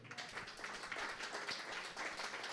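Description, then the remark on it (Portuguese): An audience applauds the Lord together in a dense, steady wash of many hands clapping, fairly soft and sustained with no voices standing out. “Você pode dar uma linda salva de palmas ao Senhor?”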